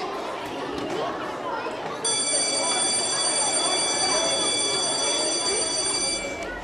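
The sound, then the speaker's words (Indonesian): A loud, steady electric school bell rings continuously for about four seconds throughout the school, over a background of indistinct crowd chatter. “Bel berbunyi nyaring di seluruh penjuru sekolah, membuatku lari lebih cepat agar tidak mendapat hukuman dari guru BK.”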